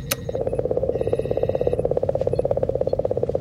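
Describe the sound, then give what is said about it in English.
Dense, continuous crackling static with rapid popping clicks over a steady hum, fairly loud and unchanging throughout, a bit like popcorn bursting. No voices. A Rosetta reference recording of Comet 67P. “Oh, it says uh, Comet 67P Rosetta reference tape.”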